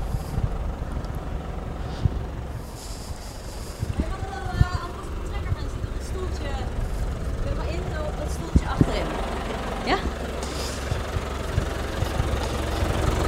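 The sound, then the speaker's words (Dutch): A tractor engine idles with a steady, low rumble that continues throughout, while a voice speaks intermittently over it. “Maar we gaan gewoon met een oh. heuse trekker.”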